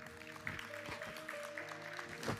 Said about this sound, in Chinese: 所以我们再一次也欢迎所有在网络上面我们的家人们，给他们一个掌声，可以吗？